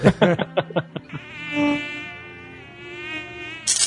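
A high, whining mosquito buzz drones steadily for a few seconds after a quick burst of choppy pulses at the start, with no talking.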